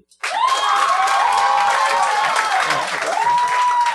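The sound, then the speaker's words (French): An audience votes by applause for Richard Petit, breaking into loud, sustained applause with high-pitched cheers and whoops riding over the clapping. It starts abruptly and keeps a steady intensity throughout. “Par applaudissement, c'était-tu Richard Petit?”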